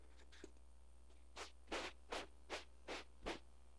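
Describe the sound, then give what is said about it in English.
Sandpaper rubbing back and forth in six steady, rhythmic strokes, each a harsh, hissy scrape, with no talking. “What is that? Oh, sandpaper.”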